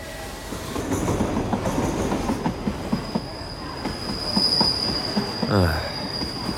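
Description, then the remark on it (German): A night train to Rome rolls along steadily, its loud rumble punctuated by rhythmic clacks of wheels over rail joints and a thin, high metallic squeal riding above, with no voices. “Gedanken verloren und schon etwas schläfrig, steige ich in den Nachtzug nach Rom und mache mich auf die Suche nach meinem Abteil.”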